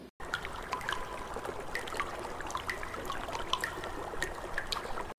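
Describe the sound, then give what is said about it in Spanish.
Water jets of a park fountain in Parque Los Chorritos, Bello, Antioquia, rising about four meters as children and parents run through them, spray and splash in a steady, continuous rush, with bright droplet patter scattered throughout at a moderate, even loudness and no voices. “Para iniciar, se ve claramente a los niños y padres jugar, corriendo por medio de los chorros del agua, que suben unos cuatro metros de altura.”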